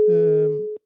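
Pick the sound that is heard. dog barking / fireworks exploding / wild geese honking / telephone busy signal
telephone busy signal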